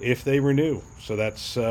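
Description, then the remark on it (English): A steady, faint high-pitched trill of crickets runs continuously in the background while a man speaks over it in the foreground. “You may hear the crickets in the background.”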